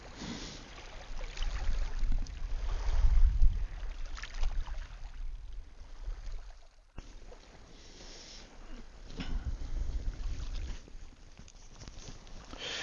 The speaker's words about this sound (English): So right now I will let you uh, enjoy the waves just for a few seconds